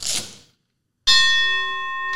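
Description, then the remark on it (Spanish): A single bright strike of a boxing bell rings out sharply and sustains with a steady metallic shimmer, preceded by a brief noisy rustle and a moment of silence. “No vais a tirar golpes, campeón, voy a tocar la campana.”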